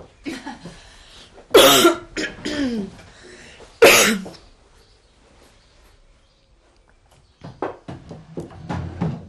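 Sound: coughing and throat clearing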